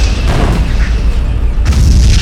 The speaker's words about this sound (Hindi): दोनों तरफ से गोले बरसे और मोर्टार गरजे